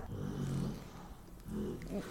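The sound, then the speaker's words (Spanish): A dog grumbles while trying to sleep through its nap: two low, drawn-out growling moans separated by a short pause, moderately loud and rumbling, with no one talking over them. “Güey, neta, le valemos verga a este perro.”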